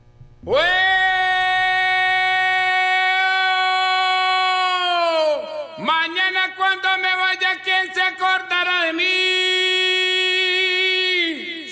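Opening of a Venezuelan llanero song: a long, steady held note rich in overtones, broken midway by a run of quick pulsing notes before the tone settles and sustains again.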